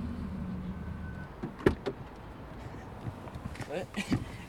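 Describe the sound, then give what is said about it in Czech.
Inside an Italian car, a door latch releases with a sharp click and thump, followed by a few softer mechanical clicks and rattles over a low engine hum and faint background voices. “italský vůz, ale má určitá technická specifika, jako je třeba otevírání dveří.”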